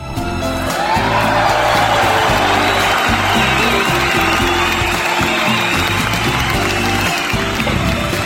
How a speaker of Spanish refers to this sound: yo creo que eso merece un distinguido y fuerte aplauso.